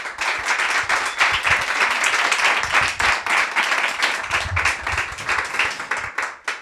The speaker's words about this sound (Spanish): Así que nada más tenemos que hacer que aplaudir a nuestro invitado ilustre, hoy en la luna, Edu Madina.